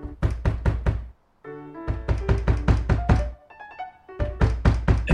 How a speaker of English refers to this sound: Then the singer comes back, starts pounding on the door.